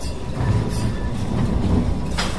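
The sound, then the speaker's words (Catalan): A tram rumbles along its rails in Lisbon, passing among election posters, steady low-frequency rolling with metallic clatter and a brief high squeal, continuous throughout with no voices. “A Lisboa, al so, la imatge dels elèctricos, els tramvies, passant enmig de cartells electorals en què es demana mudar, canviar la política, pot fer pensar que hi ha ambient d'europees, però res més lluny de la realitat.”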